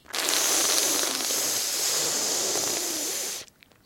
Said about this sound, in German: Das hört sich dann zischend so an. Und durch die Nase aus. Also Zungenunterseite gegen die Schneidezähne und dann die Zungenunterseite leicht nach vorne wölben und dann seitlich einatmen und dabei das zischende Geräusch machen.